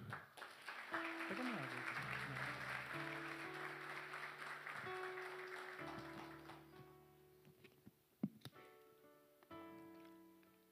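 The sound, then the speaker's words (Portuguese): An audience applauds in a dense, steady wash of clapping while sustained keyboard or organ chords play underneath, the clapping thinning out toward the end with a few sharp individual claps. “Aplauda o Senhor.”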